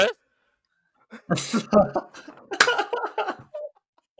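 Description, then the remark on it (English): A voice mimics someone giving a press command as a throat-clearing, with a few rough, gravelly bursts broken by short pauses, and breathy vocal noises follow. “The press command. Obviously, she doesn't have time to clear her throat, so she's just like,”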